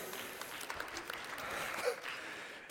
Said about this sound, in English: That is definitely worth a round of applause. Come on, somebody.